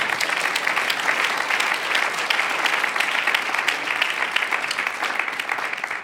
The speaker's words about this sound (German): Da können wir Gott auch Applaus geben.